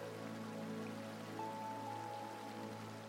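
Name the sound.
rain falling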